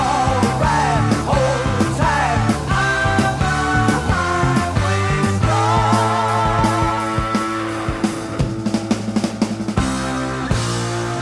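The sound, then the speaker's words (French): A loud, driving hard rock track plays with distorted guitars, pounding drums and a steady bass line, with shouted vocals over the dense, full-band sound. “… euh, de …, tu, tu choisis le titre …”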